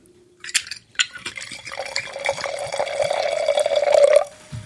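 2013 Riesling wine is poured into a glass in one steady stream lasting about three seconds. The gurgle rises in pitch as the glass fills, with a faint clink at the start. Fairly loud, no talking.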